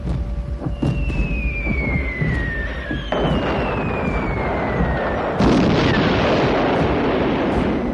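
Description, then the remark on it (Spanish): Aerial bombing: long descending whistles of falling bombs give way to two heavy explosions, each leaving a dense rumbling roar that fills the rest of the scene. “Antes el sonido de las alarmas y los aviones daban aviso de la llegada de los bombardeos aéreos, pero todo cambió con las ideas de Bernard.”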